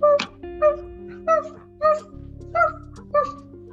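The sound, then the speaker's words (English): A voice imitates a dog, giving six short, high yips and whimpers in a steady, evenly spaced series, fairly loud, over a faint low background hum, as the speaker pretends to turn into a dog. “I'm turn into a dog.”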